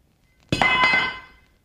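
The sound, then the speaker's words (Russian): A metal fireplace poker clatters onto the floor with two quick clanks, then a bright metallic ring fades out over about a second. No voices are heard. “Господи, какой я неловкий. Упала Черга.”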